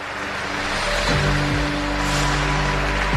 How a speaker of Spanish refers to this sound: esta es una ovación para Sergio Ruiz, escuchen